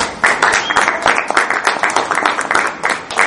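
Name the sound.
welcoming applause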